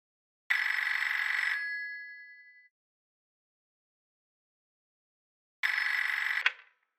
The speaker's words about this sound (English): Get me the police department. Please. Ringing the police department.